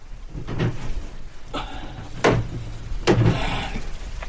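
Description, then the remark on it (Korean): Sudden hail pours down in Pyeongan Province, Korea, causing unprecedented hail damage; a dense, steady clatter broken by two sharp, loud impacts that crack through the din. No voices are heard. “평안도 지방에 갑자기 우박이 쏟아져서 사상 초유의 우박 피해가 발생합니다.”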